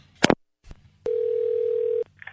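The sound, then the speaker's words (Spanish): A steady, single-pitched telephone dial tone hums for about a second, preceded by a sharp click and a brief clatter, then cuts off abruptly, followed by a faint chirp. “Yo voy a marcar para allá.”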